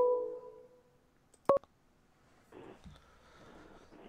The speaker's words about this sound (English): We got a phone call.